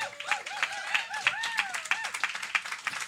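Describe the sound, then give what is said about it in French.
An audience applauds their guest, Pierre Huet, for about three seconds, a dense, steady patter of many hands clapping, with rising and falling whistle-like cheers sounding over the claps. “Sur ces belles anecdotes, mesdames et messieurs, on peut très facilement donner la main d'applaudissement qui mérite notre invité Pierre Huet.”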